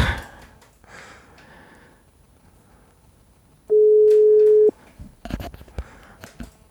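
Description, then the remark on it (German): A single loud, steady ringback tone on an outgoing phone call, lasting about a second at a flat mid pitch, with soft rustling before it and a few clicks after. “Wen rufen wir jetzt an?”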